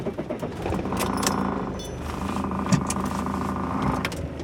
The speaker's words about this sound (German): Altes Auto es gibt viele Geräusche.